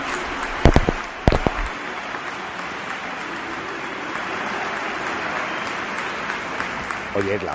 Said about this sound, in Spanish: la, ovación, no está nada mal, ¿no? Sí, pero no es... Eh, sea atronador, claro.